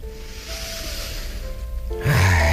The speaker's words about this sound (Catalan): A la que portem dos, tres respiracions, que prenem consciència del nostre ritme, podem fer una respiració més profunda